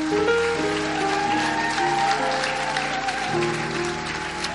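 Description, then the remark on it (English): A crowd applauds people returning to their seats, steadily for several seconds, a dense, sustained clatter of many hands, while sustained keyboard or organ chords play underneath. “Go back to your seats. Clap for them.”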